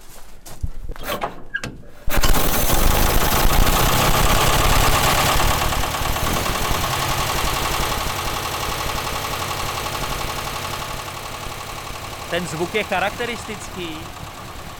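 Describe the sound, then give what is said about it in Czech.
An old car engine is started with the ignition after fuel mixture was drawn into the cylinders. It catches after about two seconds and settles into a loud, steady idle that runs to the end, with a man speaking briefly over it near the finish. “pěkně směs do valců, je na sucho a teď už to zkusíme i se zapalovaním.”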